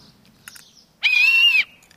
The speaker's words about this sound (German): Eine Pfeife habe ich auch. Warte mal.